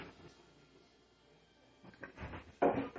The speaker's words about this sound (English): All the doors are shut up there. Uh, I think it was Hudson jumping on the bedroom door upstairs.